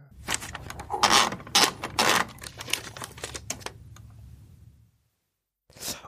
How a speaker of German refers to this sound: Oh, da könnte jemand ein Blatt in eine Schreibmaschine ja. angespannt haben.